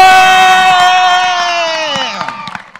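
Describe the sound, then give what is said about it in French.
A group of children cheer for Jesus with a long, loud, sustained shout that falls in pitch at the end, with scattered claps underneath, fading into a few sharper claps. “Est-ce que nous, les enfants, on peut applaudir Jésus bien comme il 1 2 3 trois.”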